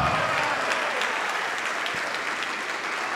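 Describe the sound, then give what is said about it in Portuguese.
Steady applause from a church audience fills the whole stretch, a dense, even patter of many hands clapping at a constant level with no voices rising above it. “Vamos aplaudir mais ainda.”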